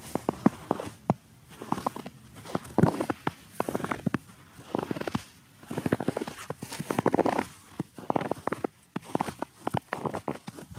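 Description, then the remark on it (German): Footsteps of two people crunch through snow at night in a steady, slightly uneven rhythm, each step a soft, gritty crackle. No one speaks. “sind wir nachts durch Schnee gestapft.”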